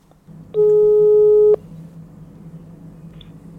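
A single steady telephone ringing tone of an outgoing phone call, about one second long, sounds clearly over a low background hum; the beep is loud, with no talking.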